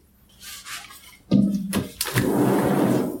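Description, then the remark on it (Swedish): A door is eased slightly ajar: a soft clunk, a brief rattle, then a second click, followed by a steady, broad hiss of outside air and ambience, with a lawnmower and a sprinkler, flowing in. No one speaks. “Det är, det är, på gränsen till att du ska öppna dörren lite extra på glänt då, så att vi får höra fågelkvittret igen som vi gjorde i någon podd.”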